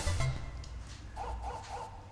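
The dog from the video game Duck Hunt laughing, a short run of three quick, evenly spaced electronic snickering bursts after a low synthetic tone, at moderate volume with no talking over it, heard when the player has not shot a single duck.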